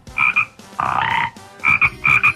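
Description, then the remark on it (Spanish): Neighbouring frogs that croak through the night, in a steady chorus of short, buzzy, rasping calls repeating in quick pulses, with a longer grating croak in the middle, fairly loud and with no talking. “Un montón de mapaches, ah. tacuaches y ranas que me dulzan mis sueños toda la noche.”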